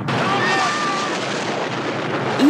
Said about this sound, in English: each one of those sizzle sounds that you hear is someone literally turning into a skeleton. And then all of it just fades to black.